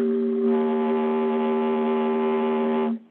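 A loud, steady foghorn-like blast holds one low, buzzy pitch for about three seconds, then cuts off abruptly, like a comic alarm sound effect, used as a "bull crud alarm" on a radio show about unemployment numbers.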